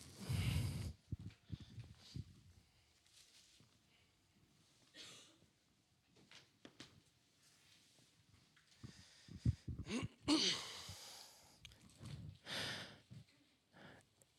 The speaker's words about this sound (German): Ich mag dieses Geräusch von Bibelblättern.